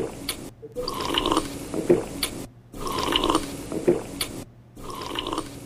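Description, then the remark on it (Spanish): Gurgling, slurping bursts like water being sucked through a drinking straw, repeating three times in a steady rhythm with short silent breaks between, fairly loud, no voices. “me parece como que cuando estás eh, con un absorbente, eh, como chupando agua, así, con un absorbente, un vaso de agua, así.”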